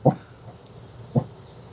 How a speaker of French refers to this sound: Et ça, c'est mon chien qui est berger australien.